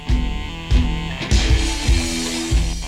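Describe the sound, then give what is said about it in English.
A loud, heavily distorted rock guitar riff chugs along with punchy, regular hits and thick low end, dense and noisy throughout with no voices. “Also, this this riff has been used in way too many fucking movies.”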